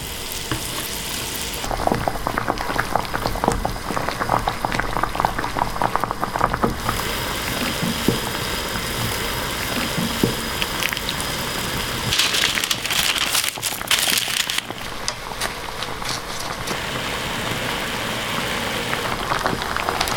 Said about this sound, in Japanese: 今朝は冬が旬肉厚なカレーの煮付けのいい音